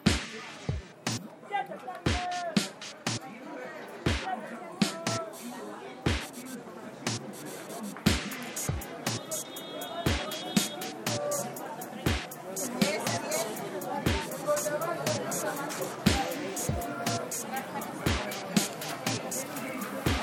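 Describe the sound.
A soundscape of the Mercado 5 de Mayo, one of the oldest markets in the city of Puebla, in the city centre: steady crowd chatter and overlapping voices, punctuated throughout by loud, sharp knocks and slaps at an irregular rhythm, like chopping or goods being thumped down.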